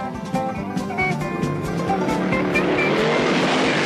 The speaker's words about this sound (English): but a Dukes of Hazzard car chase opens up.